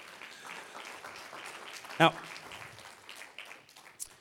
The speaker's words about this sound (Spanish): Un aplauso fuerte, Señor.